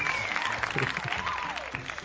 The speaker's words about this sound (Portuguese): Isso merecia palmas. Bota uma palma pra mim, Vou botar, vou botar.